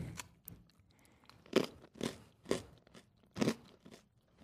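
Crunching as someone chews a hard, crunchy sweet made with sugar and lots of anise, eaten cold, with several loud, brittle bites at irregular intervals and softer chewing between them. No one speaks.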